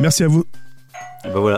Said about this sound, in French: Ça, c'est une sonnette Xiaomi. Je reconnais le bruit.